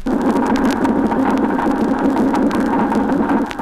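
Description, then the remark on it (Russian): Underwater, a steady low drumming hum of spawning fish, made with their swim bladders, rolls on beneath a dense bed of crackling, popping clicks of Alpheus snapping shrimp, loud and continuous throughout with no voices. “На фоне непрерывных потрескиваний, создаваемых щелкающими рачками-алфеусами, мы слышим барабанные звуки, издаваемые рыбами с помощью плавательного пузыря в период нереста.”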